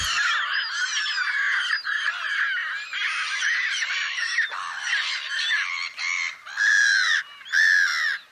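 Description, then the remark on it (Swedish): Black-headed gulls screech hoarsely in a dense, overlapping chorus, loud, with two louder drawn-out cries standing out near the end. “Det är någon slags lite hest skränigt ljud som, som säkert låter bekant.”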